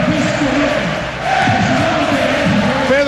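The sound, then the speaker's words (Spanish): A large crowd shouts and cheers at a championship trophy celebration as the cup is brought out, a loud, continuous roar of many voices blending into a dense wall of sound with occasional higher yells rising above it, dipping briefly before swelling again. “Gritos.”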